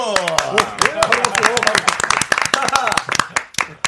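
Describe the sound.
A small group claps in quick, uneven bursts for about four seconds, sharp and fairly loud, while voices talk and call out over the applause, welcoming a music group back with its fifth album as guests on the radio show Mr. Radio.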